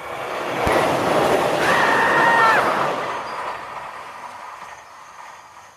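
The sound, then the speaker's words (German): A train approaches along railway tracks running next to a garden, its roar swelling with a brief high metallic wheel squeal and an early sharp clack, then gradually easing off. No voices. “Man hört den Zug bereits kommen.”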